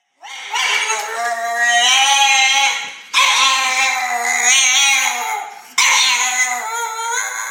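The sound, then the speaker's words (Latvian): A French bulldog lets out three long, drawn-out whining howls in quick succession, each wavering in pitch, loud with no other sounds around them. “Kā sauc suņu šķirni, kuras nosaukumā ir vārds franču? Franču būtaks.”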